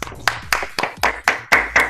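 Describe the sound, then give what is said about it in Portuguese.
Steady, rhythmic hand clapping, about eight sharp claps spaced evenly at a brisk pace, fairly loud with no voices over it. “Primeiramente, palmas para profissionais, vamos palmas para os profissionais aí, por favor”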